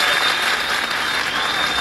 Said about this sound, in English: Get out a round of applause.